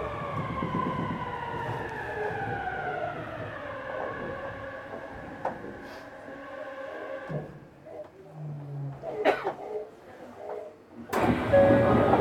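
A Yokohama Municipal Subway 10000 series train runs between Hiyoshi and Center-Kita, its electric motors humming in a layered tonal whine that gradually lowers in pitch over a rumbling ride, with a few clunks and a surge of rushing noise at the end.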